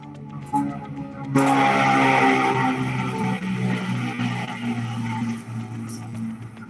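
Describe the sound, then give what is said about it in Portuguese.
An airplane roars overhead: after a brief moment a loud, broad engine rumble swells in suddenly and holds steady, with a droning whine layered through it, fading only slightly near the end. “Tem muito avião aqui.”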